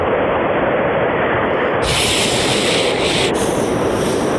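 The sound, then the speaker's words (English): Loud, steady rushing of car wash spray and blowers, a dense hiss that brightens and grows harsher partway through, then shifts again near the end. No voices. “Actually, I'm just coming out of the car wash.”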